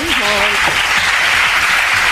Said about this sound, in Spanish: Aplausos a la emocionada ministra durante su discurso en el acto institucional con motivo del Día Mundial del SIDA.